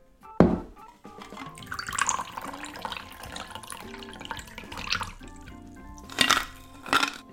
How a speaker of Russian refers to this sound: и все хорошо перемешаем. Через стрейнер перельем все содержимое в охлажденный бокал для мартини.